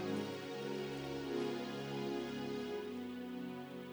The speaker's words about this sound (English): Oh, somebody slap your hands and give God praise.